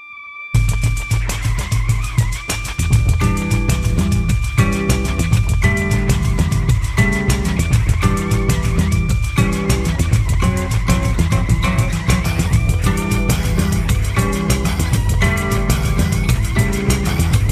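A loud, driving song plays after a split-second of silence, with pounding drums and heavy bass under a sustained, sliding lead melody that keeps a steady rhythm throughout.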